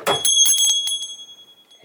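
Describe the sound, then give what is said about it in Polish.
A small metal bell rings out with bright, high overtones that hang in the air and slowly fade for nearly two seconds, with a voice briefly starting up at the very end. “W przypadku szkła, czy wykonanego z metalu dzwonu, czy dzwonka,”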